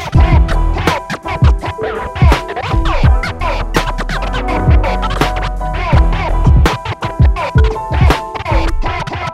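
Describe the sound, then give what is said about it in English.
Rapid turntable scratching by a DJ chops back and forth over a steady, loud beat, with sharp swooping pitch sweeps and stuttering cuts running continuously throughout. “I'll oh, uh, shut the fuck up now and let … scratch.”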